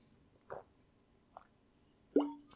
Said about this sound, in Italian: Ora bevo un altro po' d'acqua perché mi sta. Ho detto Aquaman e Aquaman mi fa venire voglia di bere acqua.